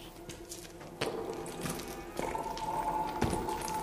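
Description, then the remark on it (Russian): Water gurgles and rushes through a large iron pipe overhead in a narrowing underground passage, a steady hollow flow with a low droning hum and a few sudden surges, with no voices. “Над нами в большой железной трубе журчала вода.”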